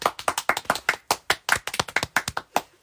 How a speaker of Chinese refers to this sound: 挺好挺好的，厉害厉害厉害！ 鼓掌。